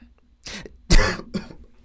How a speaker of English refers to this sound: Sorry. Sorry, y'all had to y'all had to um hear that cough. My apologies.